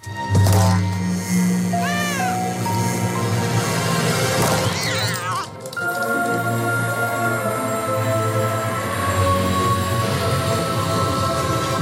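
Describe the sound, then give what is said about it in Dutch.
A cat meows a few times over a swelling cinematic music bed in a movie-like Samsung event trailer about a man who, with his cat, finds a box at his door; a brief dramatic hit and pause midway, then the orchestral score surges on, loud and continuous. “met een soort van movie-achtige trailer van een man... die een, eh, met zijn kat een doos vindt voor zijn deur.”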